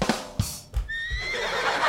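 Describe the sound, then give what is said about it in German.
A horse neighing sound effect: a loud, bright quavering whinny lasting about a second, with a couple of dull thumps like hooves at the start and no voices. “Oh, da ist mir schon wieder das Pferd ich reingerutscht.”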